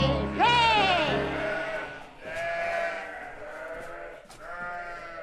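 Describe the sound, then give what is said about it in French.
Several lambs and goats bleat in overlapping, wavering cries, one loud at first, then others answering over a low farmyard rumble. “J'ai des lapins, des agneaux et des chèvres.”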